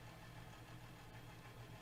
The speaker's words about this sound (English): Sorry, there's a loud FedEx truck outside.